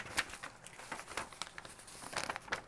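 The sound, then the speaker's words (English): Crisp paper labels crinkling and rustling in a steady series of short scratchy bursts as they are folded over by hand, with no voices. “I'm kind of been getting lazy and I've just been like crossing them over. Just, just folding them over”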